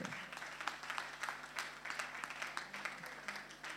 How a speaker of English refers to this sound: Clap for her. Clap for her.